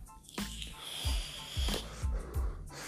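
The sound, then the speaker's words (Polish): A person puffs on a vape with rechargeable lithium-ion batteries: a breathy draw of air with a hissing, wheezy edge, followed by a few short low puffs and exhales in a loose rhythm, no talking. “No to są takie małe mikro kurwa bomby litowo-jonowe, które trzymasz sobie i ładujesz, rozładowują się kiedy palisz, potem się ładują. Na przykład tak.”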